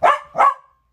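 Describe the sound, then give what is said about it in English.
A family's pet dog barks twice in quick succession, fairly loud, the second bark trailing off into a brief whine-like tail before silence. “Uh, that's our dog.”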